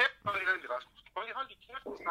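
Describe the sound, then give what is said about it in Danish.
A mobile phone rings with a melodic ringtone, playing three short tonal phrases separated by brief pauses, fairly loud. “min telefon.”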